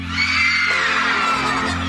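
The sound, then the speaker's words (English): A large concert crowd yells together in a loud, sustained roar of many voices, shouting a drawn-out "ow" in response to the performer, over a steady low musical hum. “I want to hear you say "ow."”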